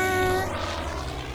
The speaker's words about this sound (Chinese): 咻！保姆的中飞机拉着凯罗的小飞机一起飞上天空。